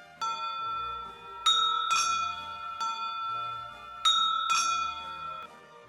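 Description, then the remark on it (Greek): A small courtyard gate bell at a monks' hut rings one morning several times in quick, uneven strikes, each bright metallic tone hanging and decaying slowly, with no voices. “Ένα πρωινό χτύπησε το καμπανάκι της αυλόθυρας.”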